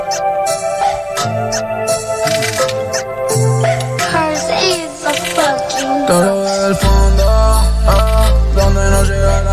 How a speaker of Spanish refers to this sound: Este es un trapcito, ¿verdad? Sí. O ahora se pone bailable, ¿no?